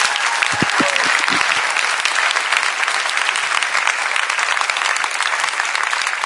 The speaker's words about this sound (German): Lass uns doch mal einen Applaus geben den Leuten, die zuschauen.